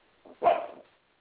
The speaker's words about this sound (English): that's my little dog Che. He just heard something outside.